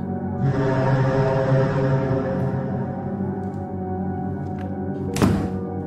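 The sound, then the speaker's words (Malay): An open door slams shut by itself with one loud, sharp bang near the end, cutting through a steady low droning hum that fills the whole clip. “Tiba-tiba pintu yang terbuka tu dia tertutup dengan sendiri dengan sangat kuat.”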